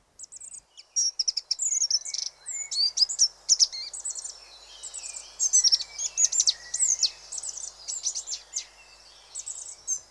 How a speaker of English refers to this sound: So our tweet of the season is Goldcrest. Many of you will be fortunate to be able to hear a goldcrest. Its song is so high pitched that many people can't hear it.